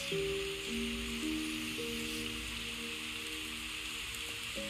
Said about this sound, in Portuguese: Enquanto você respira com seus olhos fechados, você pode ouvir a música, o som da chuva e se entregar Você pode ouvir e respirar.